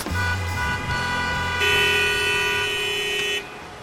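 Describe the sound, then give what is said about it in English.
Several car horns honk insistently, overlapping into a loud, sustained blare that swells midway and holds for a couple of seconds before cutting off, with traffic rumble underneath. “I don't think the honking because you slowed down.”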